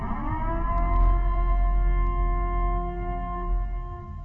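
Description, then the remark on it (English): A loud emergency siren holds a steady, droning wail with layered harmonic tones over a heavy low rumble, sounding continuously throughout with no voices present. “Commencing at the siren, there will be no holds barred, anything and everything will go down.”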